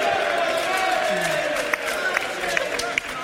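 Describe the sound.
A live audience cheers as a vote to pick the winner of a contest, a steady, dense roar of many voices, with a few sharp claps and whoops popping out over the sustained crowd noise.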